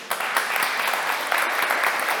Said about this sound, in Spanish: Ahora sí denle el aplauso, por favor.